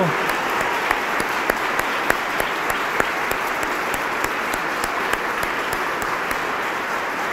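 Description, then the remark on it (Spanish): Loud, sustained applause from a crowd, a dense steady clatter of many hands clapping at once, with sharper individual claps popping out, continuing without a break for several seconds. “Fuerte, como aguacero.”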